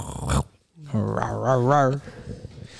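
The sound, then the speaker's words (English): Dogs bark and growl at each other: a short, sharp bark, then a drawn-out, wavering growl that rises and falls in pitch, fairly loud, followed by quieter rustling. “we heard them barking at each other, bro.”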